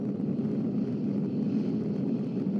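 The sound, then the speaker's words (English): A steady, continuous whine from the motors of a swarm of over a hundred tiny military drones, dropped by fighter jets in mid-flight during a US Navy demonstration, a dense mechanical buzz holding at an even loudness without breaks or voices. “The whine of their motors, almost the only sign of the threat in the sky.”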